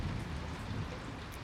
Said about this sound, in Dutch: Het regent.